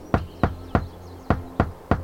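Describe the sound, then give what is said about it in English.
Six sharp taps on a hard railing in a deliberate knock pattern, a secret code: three quick raps, a short pause, then three more, with faint chirping in the background. “We both laughed at having a secret knock all to ourselves.”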